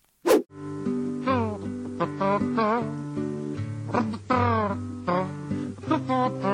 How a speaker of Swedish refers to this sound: Du är bra på att göra det där kazoo-liknande visselnyn-hybridljudet som vi förknippar med den tecknade Robin Hood-tuppen Allan i dalen.